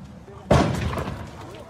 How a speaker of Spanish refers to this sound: Están tronando, están tirando. Alguien le dieron, están gritando, raza. Otro balazo, aguas.